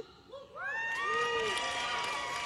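A crowd bursts into applause and cheering, with rising whoops and shouted voices swelling after a brief quieter start, then a steady loud wash of clapping and yelling.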